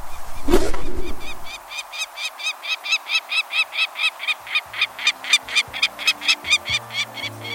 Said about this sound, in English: The mid sized peregrine falcon nests in some locales across the country, but its numbers are greatest in winter, especially near the coasts.